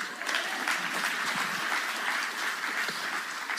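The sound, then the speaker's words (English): A crowd applauds steadily for several seconds, a dense wash of many hands clapping at once, fairly loud and sustained with no voices standing out. “Now clap, okay.”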